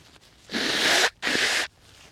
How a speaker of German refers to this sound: ich muss mir einmal kurz die Nase putzen, sonst ist Reden so schwer, sorry.